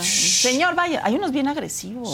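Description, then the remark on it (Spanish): A short, forceful hissing burst made by a voice imitating pepper spray, about half a second long, followed at once by a man talking in an animated tone. “Y sacas el spray pimienta.”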